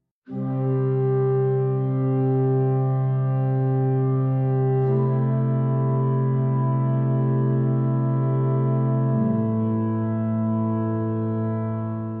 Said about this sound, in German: Langgezogene Orgeltöne breiten sich im Kirchenschiff aus, werden vom Raum mit Hall angereichert und hüllen die Besucherinnen ein. Dabei handelt es sich nicht um eine Gottesdienstgemeinde, sondern um ein Musikpublikum.